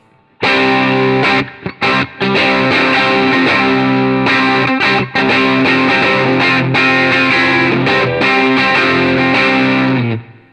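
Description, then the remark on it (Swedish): An electric guitar played through a distortion pedal with its switch set down plays loud, sustained chords with dense, gritty overtones, broken by a few brief stops before ringing out and cutting off; no one speaks. “Det blir lite mer angenämt med switchen neråt tycker jag.”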